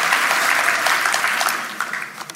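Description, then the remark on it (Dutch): Audience applause to thank the band fills the whole stretch, a dense, steady wash of many hands clapping at once, loud and hissy, easing slightly toward the end. “Zullen we de band bedanken? Zullen ze een applaus geven?”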